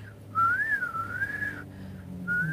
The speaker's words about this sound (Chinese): 所以现在在怎样？现在在这个半夜里吹口哨，在壮胆。